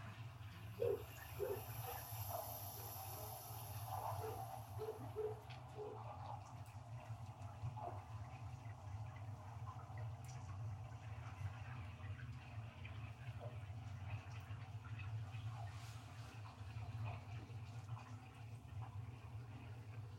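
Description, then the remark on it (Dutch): A muffled underwater soundscape of the city of Amsterdam under water: a steady low rumble with murky gurgling water, a run of bubbly blips in the first few seconds, then continuous submerged ambience with faint clicks. No one speaks. “het geluid van de stad onder water.”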